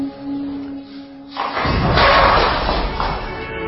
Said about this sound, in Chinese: 在一次使用硫磺、木炭和硝石为燃料炼丹时，发生了一场意外爆炸。